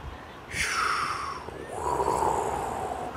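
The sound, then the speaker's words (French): A voice imitates waves washing over sand with breathy whooshing hisses, two swells that rise and fade in turn, fairly loud, at the seaside. “Je sais pas si tu l'entends, mais donc on a la mer qui monte, qui redescend, la vague qui déferle et qui relèche le sable et qui redéferle et qui relèche le sable.”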